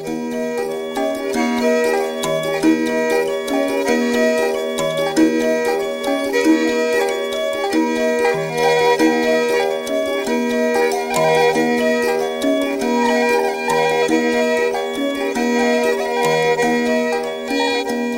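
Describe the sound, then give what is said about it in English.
Steady traditional Tanzanian instrumental music from Bagamoyo, blending a plaintive bowed zeze fiddle with the deep, bell-like plucked chimes of an ilimba lamellophone, repeating in a continuous rhythmic cycle, fairly loud, with no voices. “The crying of the bowed string zeze and the deep bell like chime of the ilimba lamellophone, quite distinct from the various mbiras, kalimbas, sanzas, likembe, and gobi of southern and central Africa.”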